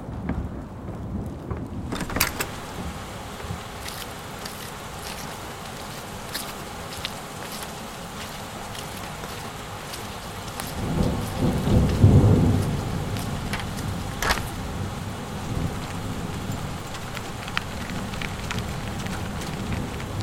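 Steady heavy rain pours down continuously, a dense hiss with scattered drops hitting surfaces, and a low rumble of thunder swells briefly near the middle.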